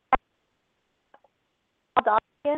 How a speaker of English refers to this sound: Uh oh. What was that? Oh, you're breaking up. We can't hear you.